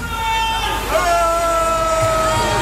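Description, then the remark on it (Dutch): A festival crowd applauds and cheers a DJ as his set on stage ends, at 3FM Serious Request, in a steady, dense wash of noise, with sustained high tones running through it that briefly dip in pitch early on. “… krijgt applaus.”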